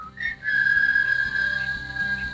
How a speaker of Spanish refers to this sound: Te iba a decir, a ver si lo adivinas, pero no lo dije antes. es que yo creo que es el silbido más, más, famoso de, ¿Ustedes saben silbar bien?